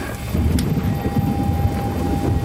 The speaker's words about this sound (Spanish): Oh, se acerca una tormenta. Me parece que el viento se filtra por el techo